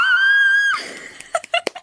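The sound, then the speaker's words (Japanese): A loud, sustained high-pitched scream sound effect holds steady for under a second, then breaks off into a few short, sharp bursts of shrieking or squealing. “いや、これもキャーですよ。もうこんな、悲鳴、悲鳴というか”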